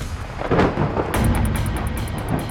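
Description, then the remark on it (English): A deep, rolling rumble of thunder from an approaching storm swells in loudness and keeps grumbling low and broad, with steady rain hissing over it and no voices. “Skylar's heart jumped. The storm was getting closer.”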